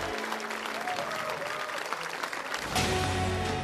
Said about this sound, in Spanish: Se para en el centro del escenario y hace algunas maniobras. Al estirar el brazo, unas piedras moradas emergen de su cuerpo y flotan en el aire. El público aplaude entusiasmado.